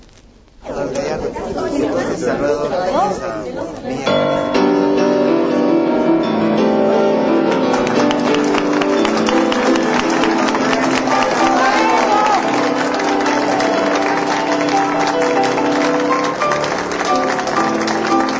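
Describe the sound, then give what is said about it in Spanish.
A crowd hums with a steady, overlapping murmur of many voices, and scattered glasses clink now and then beneath the continuous chatter, growing fuller after a quieter opening few seconds. “Para escuchar cómo se oye hasta las copas y la gente murmurando. Copas, que se escuche el ambiente en vivo.”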